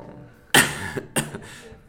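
Two harsh coughs from a person who is sick, the first sharp and loud, the second following about half a second later, with a raspy, chesty tail and no speech.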